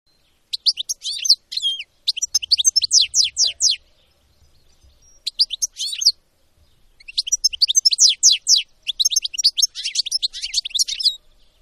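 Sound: european goldfinch song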